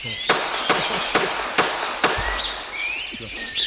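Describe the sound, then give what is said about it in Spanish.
Five sharp gunshots from an automatic 9 mm shotgun, at Tablas de Daimiel, fire in quick, even succession, echoing across open country while birds chirp and call in the background. “Los pájaros que suenan ni idea, pero la escopeta es una vereta automática 9 milímetros.”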